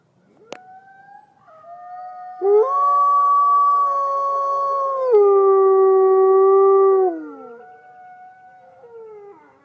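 A long, mournful wolf-like howl of a werewolf raising its huge head rises and holds steady for several seconds, then slides downward and fades, loud with no talking.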